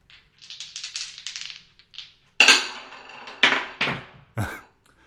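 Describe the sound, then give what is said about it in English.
A 12-sided die and two 6-sided dice are rolled to choose a musical key and chords; they rattle and clatter, first in a quick shaky burst, then several sharp knocks tumbling across a hard surface before settling. No one speaks. “That's right, and we'll be choosing those chords tonight using our algorithm, which involves a 12 sided musician's dice to choose the key and two 6 sided dice.”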